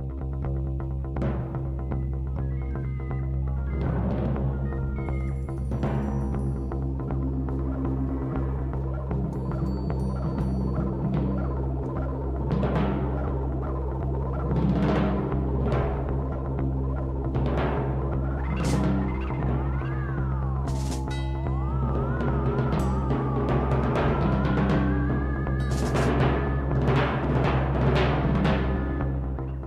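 Eerie synthesizer music: a steady low drone with scattered rustling noise bursts, lone sustained notes and slow wavering, gliding tones rising over it, moderately loud and continuous throughout.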